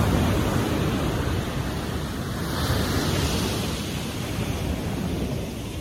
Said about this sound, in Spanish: Le vamos a pedir a Arcángel Miguel que se haga presente y aprovechando que tenemos el mar, a Yemaya, también que se haga presente.